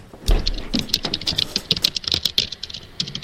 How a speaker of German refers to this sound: die Tippgeräusche kommen daher, dass Laptop-Mikrofone neben Tastaturen verbaut werden. Ich meine, ich könnte auch jetzt einen Laptop unter das Mikrofon stellen, dann hätte ich auch Tipp- und dann Gruselgeräusche.